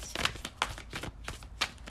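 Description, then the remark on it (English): A tarot card deck being shuffled, a quick series of crisp riffling snaps and soft slides repeating in an uneven rhythm, with no talking. “Ooh, okay, let's shuffle. Shuffle, shuffle.”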